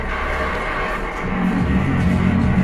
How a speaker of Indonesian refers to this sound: iya penontonnya tepuk tangan duduk kan iya, iya.